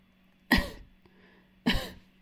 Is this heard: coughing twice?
yes